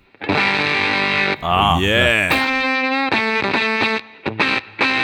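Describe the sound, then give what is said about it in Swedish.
Fuzzy, gently distorted electric guitar played through a low-gain fuzz pedal on its setting called Polen sounds loud: a sustained note, a wobbling bend, then a run of short, choppy repeated chords. Someone briefly exclaims over the playing. “Sagd low gain fuzz, alltså, eller bass.”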